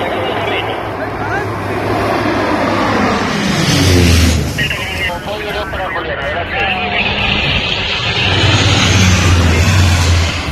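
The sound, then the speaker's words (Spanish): Loud, steady engine roar of firefighting aircraft, such as the Spanish Air Force 43 Group planes dropping water on wildfires in Spain, swelling and shifting in pitch as one passes, with muffled voices underneath. “incendios que han obligado a emplearse a fondo a los pilotos de helicópteros, a los pilotos de aviones apagafuegos, como los del 43 Grupo del Ejército del Aire, que han estado apoyando con sus descargas de agua el trabajo que realizan”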